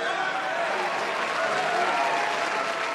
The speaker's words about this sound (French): Les lumières qui se tamisent. Ah, on sent la foule qui se chauffe.